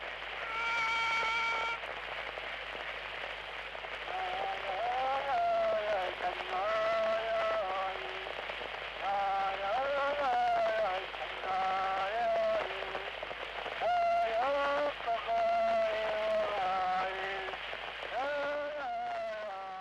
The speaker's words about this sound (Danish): Det har faktisk været en måde, man øh, afgjorde retssager på. Man kan da ikke afgøre en retssag med en sang. Så skal du lige høre den her. Øh, det er en nidsang, og den lyder sådan her.